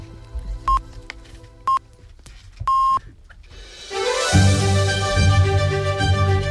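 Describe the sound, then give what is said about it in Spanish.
Canal Sur Radio time signal marking half past seven in the morning on the show La mañana de Andalucía: two short high beeps a second apart, then a longer, louder tone, followed by a swelling musical jingle with rich sustained chords. “Acaban de dar, ustedes lo han escuchado, las siete y media de la mañana”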